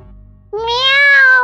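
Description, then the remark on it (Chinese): A single drawn-out meow from a cat named Youyou as it rubs against a person's feet, soft and high-pitched with a slight upward bend, sounding on its own after a brief stretch of low rumbling background noise. “这是在地球上被称之为猫的生物吧？”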